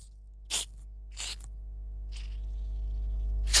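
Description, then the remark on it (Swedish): A screw cap twisted open on a bottle of sugar-free julmust soda, releasing four short, sharp bursts of fizzy hiss spaced a second or so apart, over a low steady hum. “Var det en skruvkork på den? För det lät som att det var jäkligt segt, eh, själva ljudet”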